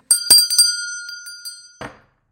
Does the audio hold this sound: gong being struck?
yes